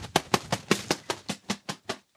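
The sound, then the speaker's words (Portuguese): A feather duster flapped like bird wings: about ten quick, steady whooshing beats, fairly soft, with no one talking. “Mas eu também tenho esse espanador que pode ser. São asas maiores, né?”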